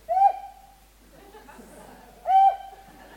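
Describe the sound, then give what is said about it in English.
Two loud, level whistles, each a steady mid-pitched tone with a slight upward swoop, separated by a pause filled with faint murmuring background noise. “Ah, he's whistling.”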